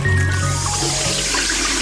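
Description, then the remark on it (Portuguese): Water runs steadily from a tap left open while a man shaves, a continuous gushing hiss that holds at an even loudness from start to finish, with no voices. “Mas por que essa torneira aberta quando está fazendo essa barba?”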